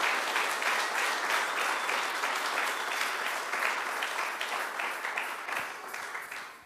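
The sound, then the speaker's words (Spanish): A crowd claps for the King, steadily applauding for several seconds, a dense, bright wash of many hands that holds at a fairly loud level before tapering slightly at the end. “Dele palmas al rey.”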